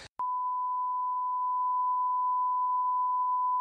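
A steady, high-pitched censor bleep holds at constant loudness for over three seconds, preceded by a very short burst of noise at the start, with no talking underneath.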